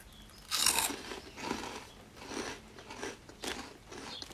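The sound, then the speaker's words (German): Crunching and chewing of bright yellow cheesy corn puffs: a loud bite crunch followed by several irregular chews, each a burst of crisp, crackly noise fading between. No one speaks. “Schmeckt so ein bisschen wie das, nur mit Käse.”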